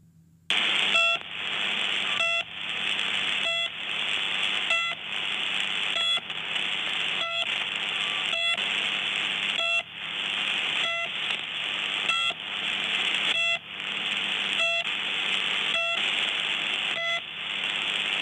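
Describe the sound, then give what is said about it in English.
A shortwave radio station's repeating pip beeps, a steady run of loud, evenly spaced electronic tones about once a second, each separated by a brief gap, over a constant hiss of radio static. “This is the PIP. This is the sister station to the buzzer.”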